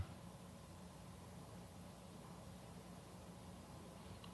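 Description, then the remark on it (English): A steady, low air conditioner hum runs unbroken throughout, a faint even whoosh with a soft low rumble and no voices or other sounds. “If sounds arise, note them the air conditioner.”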